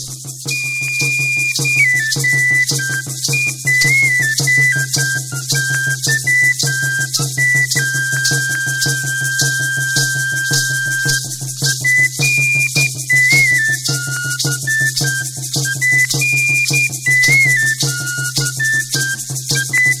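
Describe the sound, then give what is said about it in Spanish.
An instrumental music track plays loudly throughout, with a high, whistle-like melody wandering over a steady low drone and a fast, even rhythmic pulse. No voices are heard. “Bueno, hemos llegado al momento de nuestro siguiente corte musical.”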